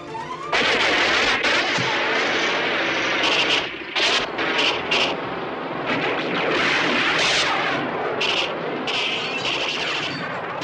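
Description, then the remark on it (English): Loud, dense battle noise from a film's Vietnam War battle sequence, shot in Squaw Valley, California: rapid machine-gun fire rattles almost nonstop, punctuated by sharp bursts and booming blasts, with no voices over the chaotic din. “A battle sequence in Vietnam was filmed in the Squaw Valley in California.”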